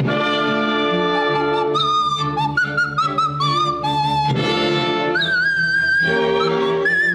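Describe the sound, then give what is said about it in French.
A nose flute, played with the nostrils, plays the Queen of the Night aria, a quick, ornamented operatic melody with leaping high notes and trills, its breathy whistling tone steady and prominent over a sustained lower accompaniment, with no talking. “sais ce que c'est que ce drôle de sifflet qui te joue l'air de la reine de la nuit Eh ben c'est pas un sifflet, c'est une flûte nasale.”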